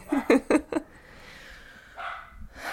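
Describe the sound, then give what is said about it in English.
A dog barks four times in quick succession, then falls quiet; a faint whine or rustle follows near the end. “I just hear him barking and it breaks my heart every time.”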